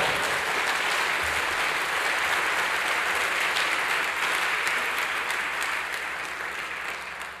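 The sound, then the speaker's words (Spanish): An audience applauds for the Lord after a scripture reading, dense sustained clapping from many hands that holds for several seconds before gradually thinning out near the end. “Dele fuerte al Señor por esta palabra.”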